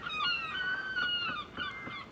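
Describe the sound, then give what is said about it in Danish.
Seagulls squawk in a run of harsh, overlapping cries, several calls rising and falling in quick succession, loud with no speech. “Jeg hader måger. De flyver altid rundt og klatter over det hele.”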